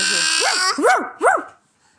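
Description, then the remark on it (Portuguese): Three quick barks in a row, likely a person's voice imitating a dog, each a short rising-and-falling yelp, with a faint steady hum behind the first. “Eu não, latiu o cachorro.”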